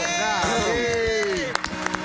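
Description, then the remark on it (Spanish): Audience applause with cheering voices: sustained whoops and shouts sliding in pitch over a steady crowd wash, followed by a few sharp, scattered claps toward the end. “un aplauso.”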